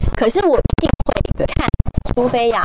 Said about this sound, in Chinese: 因为我今天穿了一件拉链衣服，我的麦克风别在我的拉链上，所以刚刚大家可能听到一些稀稀沙沙。